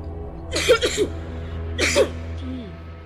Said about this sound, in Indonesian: Batuk.